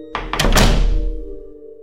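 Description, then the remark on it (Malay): A door is shut with a heavy, booming thud, a quick rattling impact followed by a low resonant decay and a faint steady hum, with no voices. “Pintu segera ditutup”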